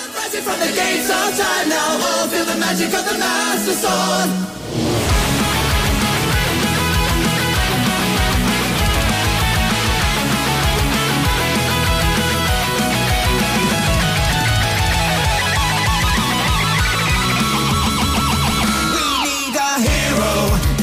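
Loud, fast power metal by a British band with dense distorted guitars and pounding drums, a soaring sung lead vocal riding on top after a brief opening build, running continuously throughout.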